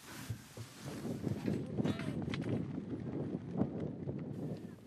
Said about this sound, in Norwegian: Vinden blåser kraftig på den nasjonale fotballstadion i Pristina, hovedstaden i Kosovo.